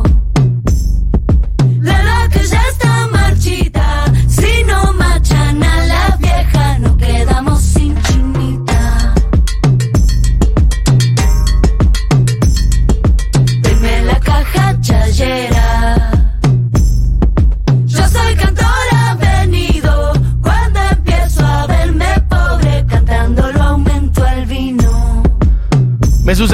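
A song plays continuously at full volume, with a steady, punchy beat, deep bass and melodic vocal-like lines weaving over a dense, bright mix throughout.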